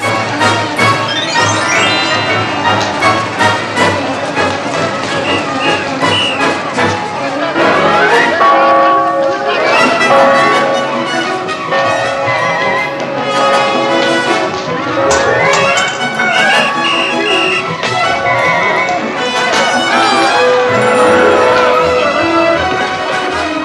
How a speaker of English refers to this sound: We'll hear a gong in the music as the two groups chasing Gidget collide on the stairs. and then a Celeste when a bunch of balloons are released.